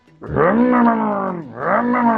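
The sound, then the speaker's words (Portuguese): A man with a cold squeezes his nose while breathing in to imitate a motorcycle: a loud, buzzing nasal drone that revs upward, dips briefly, then climbs again. No talking. “Tipo, tipo, o nariz dele, ele descobriu que se ele apertasse no lugar, fazia som de moto quando ele inspirasse, tá ligado?”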